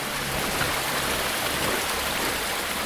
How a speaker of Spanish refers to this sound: Después se vierte el agua en la Guizán, que es el río que atraviesa todo el valle de Serge la de chevalier